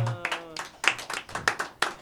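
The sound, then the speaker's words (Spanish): Hands clap in a quick, slightly uneven burst of applause, a dozen or so sharp, bright smacks over about two seconds, with a brief low tone fading out at the start. “el aplauso.”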